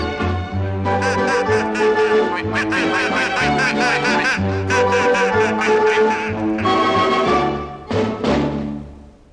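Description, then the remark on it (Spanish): Repeated duck-like quacking runs through steady, bouncy background music, the quacks coming in quick, busy bursts that fill nearly the whole stretch before fading near the end. “Esos patitos tienen tal modo de zambullirse en agua con lodo que la maestra dijo esta frase, patos mojados no quiero en mi clase.”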